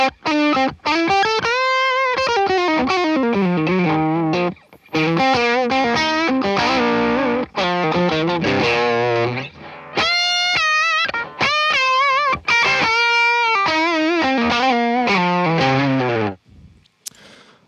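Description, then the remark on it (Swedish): A heavily distorted electric guitar, plugged straight into the amplifier with nothing in between, plays loud, sustained chords and melodic phrases, with brief pauses between passages and a fading final note. “Det här är bara gitarren rak, ja, rakt in i, i stärken.”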